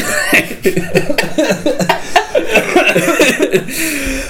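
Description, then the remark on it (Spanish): A run of coughs, several sharp bursts over a few seconds, mixed with voiced, laugh-like sounds between them. “Voy a toser, con permiso.”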